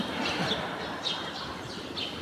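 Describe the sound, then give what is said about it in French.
Birds chirp in short, high, repeated calls every half second or so, over a steady wash of outdoor background noise. No one speaks. “Avec tous ces oiseaux à la con, ils trouvent ça calme.”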